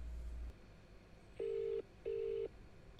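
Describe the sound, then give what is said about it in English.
A phone call's ringback tone sounds twice while calling a paranormal helpline hotline, two steady electronic beeps of equal length separated by a short gap, heard through a line against quiet background hiss with no talking. “Oh, it's ringing.”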